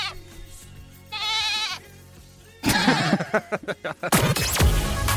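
A sheep gives a quavering bleat, then after a short pause a louder, harsher flurry of overlapping, choppy bleats follows, with no talking.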